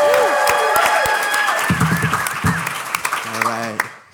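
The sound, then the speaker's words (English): A crowd at the Family Travel Summit in Bermuda claps and cheers, with dense applause under rising whoops and shouted voices that swell and waver before everything fades out quickly at the end. “So right now, Family Travel Summit, make a little noise for Family Travel Radio. Let them hear you.”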